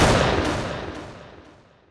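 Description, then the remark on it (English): A single loud rifle shot, a hard flat crack that rolls off into a long fading echo, with faint repeating reflections as it dies away. No voices. “fired his rifle. The sound was a hard, flat crack, not the woof of a tranquilizer gun.”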